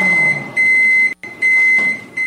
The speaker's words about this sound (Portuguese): O apito do micro-ondas indica que a água já está quente.